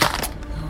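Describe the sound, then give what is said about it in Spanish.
A mobile phone hits the ground and breaks with a sharp crack, followed by a brief clattering rattle that quickly dies away. No one speaks. “se hizo bosta el celular.”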